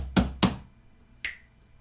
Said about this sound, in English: those were my fingertips smacking against the corner of your wall